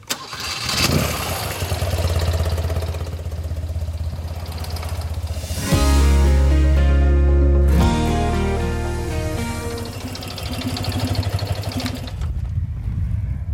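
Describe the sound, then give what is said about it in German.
A car engine cranks and starts, idles for a few seconds, then revs up loudly and pulls away, the motor's hum staying steady as the car drives off the grounds of an old tiled-stove factory along the German Avenue Road towards Rheinsberg, Germany. “Und wir verlassen jetzt das Gelände der alten Kachelofenfabrik und fahren über die Deutsche Alleenstraße weiter nach Rhein.”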